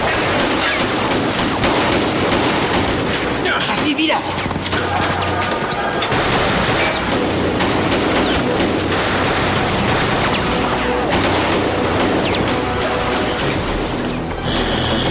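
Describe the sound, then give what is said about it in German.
Rapid gunfire crackles almost nonstop, dense bursts of shots layered into a loud, chaotic barrage, with a brief shouted voice cutting through the shooting. “Kein Respekt mehr. Schuss, komm!”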